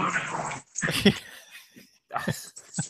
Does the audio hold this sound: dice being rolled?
no